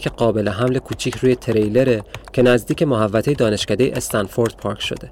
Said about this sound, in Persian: هوای بیرون رو به تاریکی میره و داخل اتاقکم جز نور یک مانیتور هیچ روشنه دیگه وجود نداره و مثل بیرون تاریکه. این صدایی که میشنوید از کیبورد همون کامپیوتر بلند میشه و محصول تلاش یک مرد جوان